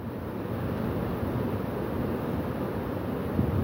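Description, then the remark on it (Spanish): Steady rushing water roars continuously, a dense low-heavy wash of a creek swollen by rain and close to overflowing, with no voices and a faint gusty quality throughout. “es que se está mojando el cel aquí, oiga y traigo todos los lentes empañados, no veo nada, no escucho, pero vea, allá al fondo lo tecnológico casi casi se nos va a desbordar ese arroyo ahorita.”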